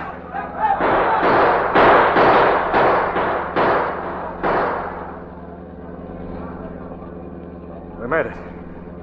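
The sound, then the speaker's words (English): A rapid volley of roughly eight loud, sharp gunshots from police rings out at a passing car, over the car's steady low engine rumble; then the engine drones on alone with one brief burst near the end. “They'll make lead fly as we pass.”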